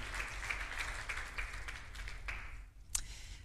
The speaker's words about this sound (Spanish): también por allá está mi hermano, Dios me le bendiga. Un aplauso para él que también nos acompaña.